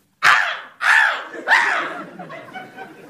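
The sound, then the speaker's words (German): Seagulls native to northern Germany call out: three loud, harsh, laughing cries in quick succession, then a string of fainter, shorter squawks trailing off, with nothing else in the background. “Die anmutigen Möwen, die hier heimisch sind und Wind, Wetter und Touristen trotzen, die verzweifelt versuchen, ihre Pommes vor ihnen zu beschützen.”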